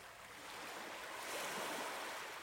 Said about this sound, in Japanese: 姉の恋人はその石を波の奥の方まで投げた波の音に石は飲み込まれた